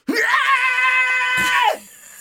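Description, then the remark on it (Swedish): A voice imitates a loud, sustained scream of pain, as of someone screaming while urinating, one long strained cry lasting over a second before cutting off abruptly. “Du står och skriker rätt ut när du står och kissar.”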